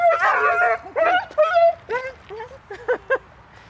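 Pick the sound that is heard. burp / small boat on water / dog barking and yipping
dog barking and yipping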